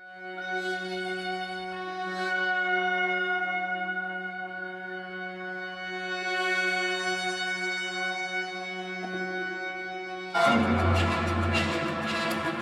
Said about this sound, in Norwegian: Så skal dere høre litt fra et eh, stykke som heter 'Nox on Pax' av Chelsea.